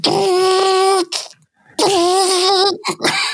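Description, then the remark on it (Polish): A voice imitates a loud invoice printer with a sustained, buzzing tone, breaking off briefly, then resuming for another long stretch with a few short sputtering bursts at the end. “Dwa dźwięki, które pamiętam, to jest ten, który teraz tak pięknie nam tutaj wyśpiewałeś”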